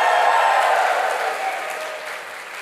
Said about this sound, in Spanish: Ahora sí hay que darle un fuerte aplauso al que vive por los siglos de los siglos. De un grito de victoria.